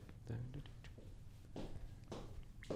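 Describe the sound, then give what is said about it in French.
Several footsteps of a person walking land at an uneven, unhurried pace, each a soft thud with a faint scuff, with some low background noise and vocal sounds around them. “Vous entendrez pas le magnifique le sonore du bruit de mes pas, mais...”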